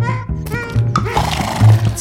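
A horse whinnies loudly, a shrill, wavering neigh that rises and falls over about two seconds, with some background rumble beneath it.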